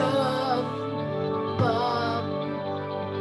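A rock song's opening plays loud and full, with sustained, dense chords ringing out and a sharp hit partway through, without any voices.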